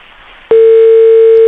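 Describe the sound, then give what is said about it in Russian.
A brief stretch of faint hiss gives way to a loud, steady telephone ringback tone on a call to people's deputy Anton Gerashchenko, adviser to interior minister Arsen Avakov, one continuous mid-pitched beep that holds unbroken to the end as he does not pick up. “А есть у нас гудки?”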